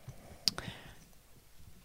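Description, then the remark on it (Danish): Two quick, sharp clicks as a crumpled thin cutting wire is bent straight, followed by faint rustling and handling noise. “Det er en skæretråd, du bøvler med.”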